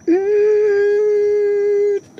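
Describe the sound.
A voice imitates a whining mosquito with one steady, sustained nasal tone held for about two seconds. It sounds loud and even, with a brief upward slide at the start and an abrupt stop.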